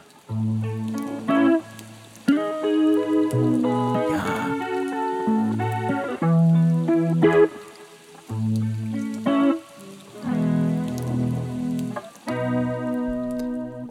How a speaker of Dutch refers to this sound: Ja, met die regendruppels op de achtergrond. Dat ja, toch net iets andere vibe.